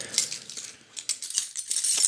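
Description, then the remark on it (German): A bunch of keys jangling on a ring holding house door, cellar, upper door and mailbox keys plus a shopping-cart chip, a bright metallic clinking that comes in irregular bursts for about two seconds, with no voices. “Das ist auch ein ganz ein Klimperschlüssel.”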